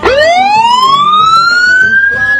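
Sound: police car siren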